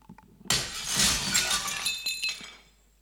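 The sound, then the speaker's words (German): A sudden loud crash of a mirror smashing into shards on the floor, bright glassy fragments ringing and tinkling as pieces scatter and settle over a couple of seconds, with no voices. “und jetzt sehen wir einen Haufen Scherben hier auf dem Boden.”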